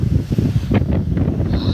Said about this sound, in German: Das ist schon nicht ohne mit dem Wind, aber mit der Strömung, klar.